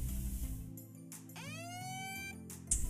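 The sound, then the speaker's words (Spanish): A cheap electronic alarm tone rises in pitch, then holds a steady, buzzy harmonic wail over a low droning background, with short noisy bursts before and after. “mi alarma chafa, pero bueno, es como si fuese una alarma.”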